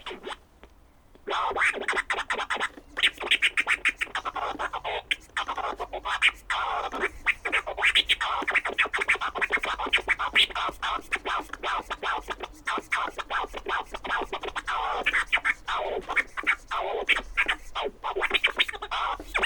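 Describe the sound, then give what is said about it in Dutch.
DJ turntable scratching fills the track, a dense run of quick, choppy back-and-forth scrapes with a steady rhythmic pulse, loud and continuous with no talking. “Eh, hoort dat, uh, maar ja, hoort dat misschien ook niet, want zijn is scratcher, maar het is, eh, ja, moet ook eh, nog een beetje oefenen, want het is, het is echt al, al even geleden.”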